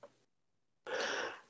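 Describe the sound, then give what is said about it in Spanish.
A single forceful sneeze: a brief intake of breath, a short pause, then a loud, breathy burst that lasts under a second. No talking accompanies it. “Jesús.”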